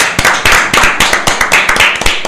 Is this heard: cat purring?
no